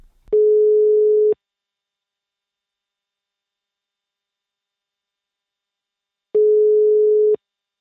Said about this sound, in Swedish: och eh, vi ska väl slå en pling till Marcus här. Vi ringer Marcus.